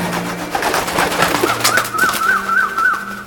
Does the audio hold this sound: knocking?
no